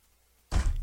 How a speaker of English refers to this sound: I hit my desk. That wasn't sound waves. That was me hitting my desk.